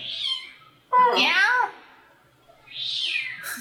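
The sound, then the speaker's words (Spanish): A cat meows angrily three times, loud: a short cry, a longer wavering complaint, then a final drawn-out yowl, with quiet pauses between them. “¿Qué pasa, gato? ¿Por qué estás enojado?”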